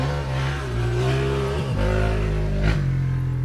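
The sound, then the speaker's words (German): A car engine revs and accelerates, its steady low drone stepping up in pitch through gear changes, with a brief dip and surge partway through. No one speaks. “Ja, er muss dann mal Gas geben.”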